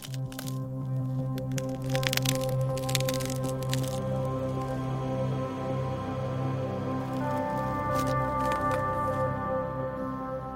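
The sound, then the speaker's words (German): Glacier ice in Antarctica, slowly moving, groans with sustained low creaking tones, broken by dense bursts of sharp cracking and snapping early on and again near the end, loud, with no voices. “Aber das Eis ist in Bewegung. Zu langsam, um es mit bloßem Auge zu sehen, aber man kann hören, wie es wandert.”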